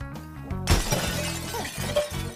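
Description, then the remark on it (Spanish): Plates being thrown and smashed: a sudden crash of breaking plates bursts in with a bright shattering clatter that rings on over a steady low musical hum before fading. “Pero se están aventando platos.”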